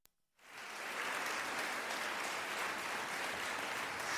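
After a brief moment of quiet, a large crowd breaks into sustained, steady applause that swells quickly and stays loud and dense for several seconds.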